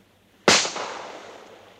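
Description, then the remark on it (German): A single loud gunshot, fired at a seagull, cracks out sharply after a brief quiet moment, then rings away in a long, echoing decay. No one speaks. “Kein schlechter Schuss.”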